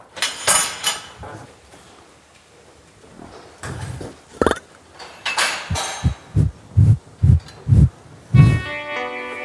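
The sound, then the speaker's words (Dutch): Breathy, curious snuffling bursts from a cow on a farm, followed by a low gurgling burp from one of its four stomachs and a run of evenly spaced, muffled low pulses, with some faint clinking toward the end. “En als ik de koeien zelf vraag of het klopt wat er allemaal over hen gezegd wordt door boer Tom, dan krijg ik slechts een oprisping te horen uit een van de vier koeienmagen en een nieuwsgierig gesnuffel.”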